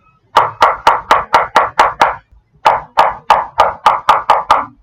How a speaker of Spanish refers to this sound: Caperucita Roja golpeó a la puerta.